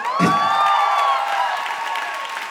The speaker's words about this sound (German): Ein komplett angemessener Applaus, würde ich sagen. Ein großer Applaus auch vielleicht nochmal für Martin Semmelrogge an dieser Stelle.